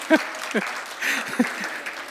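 Brief, fairly soft applause, a few hands clapping in a quick patter, with short bursts of voiced laughter or chatter popping up over it.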